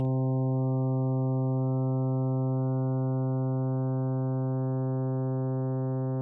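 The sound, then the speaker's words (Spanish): A steady, synthetic-sounding tone built from a harmonic series of evenly spaced harmonics, each harmonic softer than the last as the vibration's amplitude decreases, held for about six seconds with no pauses or voices. “Y cada vez que suena un armónico, suena más suave ya que la amplitud de la vibración va disminuyendo hasta que se disipa de nuevo en el silencio.”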